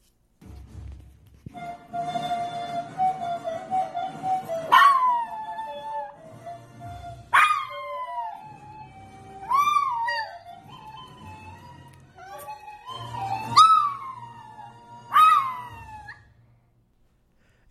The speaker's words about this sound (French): je pense vraiment que le chien, le petit chien d'Ali euh, souffre énormément